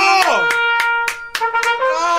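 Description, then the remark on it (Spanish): One person claps about six times at a steady, moderately quick pace, each sharp slap crisp and loud, while a sustained voice carries on underneath. “Permítame aplaudirle, creo que me estoy pasando.”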